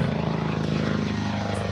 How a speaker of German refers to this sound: In Düsseldorf die oh, yeah. ähm, Flugzeuge ja, und hier der Rettungshubschrauber.